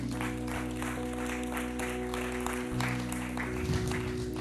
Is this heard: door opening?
no